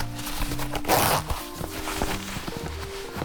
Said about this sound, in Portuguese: Levantei novamente e abri o zíper de seu vestido nas costas